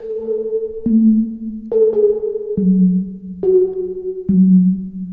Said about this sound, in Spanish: También, que ha sido viral, … de ….